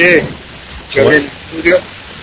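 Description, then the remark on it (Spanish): A steady, rain-like crackling hiss from a microphone fills a radio broadcast line from start to finish, with a few short bursts of a voice speaking over it. “¿Se escucha bien? Se escucha con alguna lluvia.”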